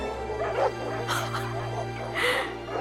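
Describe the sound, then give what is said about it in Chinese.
Dogs barking all around a village in a handful of sharp, uneven bursts, some higher and yelping, over a steady low hum that runs underneath the whole time. “当他感到如释重负的时候，他听见到处都是狗叫声。”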